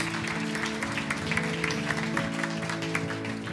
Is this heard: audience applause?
yes